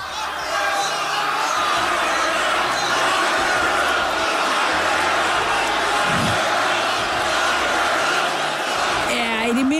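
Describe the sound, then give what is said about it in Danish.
A large crowd at a Donald Trump event chants "Lock her up", a chant used heavily during the 2016 election, in a loud, dense roar, the repeated phrase pulsing roughly in rhythm beneath a constant wash of cheering and shouting voices. “så har de aldrig været sådan super gode til at råbe i takt, men det, der altså bliver råbt her i baggrunden, det var Lock Her Up.”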